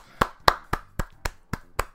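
applause

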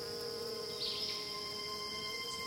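bumblebees buzzing

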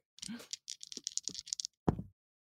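twenty-sided die being rolled

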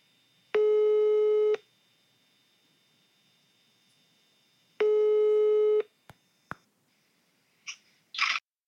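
telephone ringing tone

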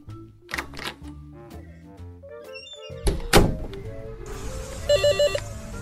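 knocking on a door

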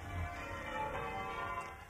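church bells ringing

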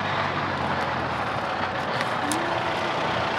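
car driving past

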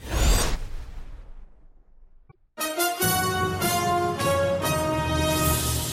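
slap sound effect

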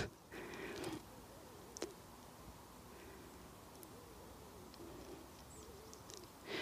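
birds calling

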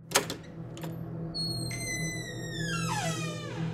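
door creaking open

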